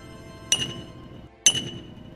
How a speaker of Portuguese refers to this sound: Quando tu chega na cidade, tu escuta os artífices trabalhando, tu vê o Taio ao fundo